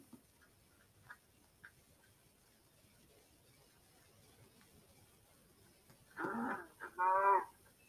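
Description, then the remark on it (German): A cow moos twice near the end, two short, loud calls in quick succession, after several seconds of near silence broken only by a few faint ticks. “Da ist oben ist noch eine Kuh.”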